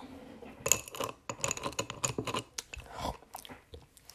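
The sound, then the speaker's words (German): Loud, wet smacking chewing while eating, a rapid irregular series of sticky mouth clicks and crunchy bites with no talking. “nicht schmatzen.”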